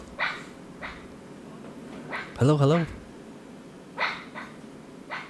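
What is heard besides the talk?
dog barking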